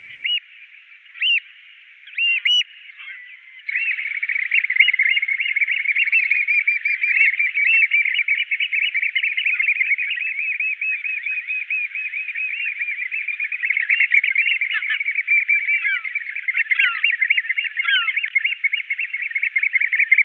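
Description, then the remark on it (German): Eurasian oystercatchers give a few sharp, shrill calls, then break into a loud, continuous piping chorus of rapid, high whistles that carries on unbroken to the end, with no talking. “Seine gellenden Rufe brachten ihm den lautmalerischen Beinamen Lief ein.”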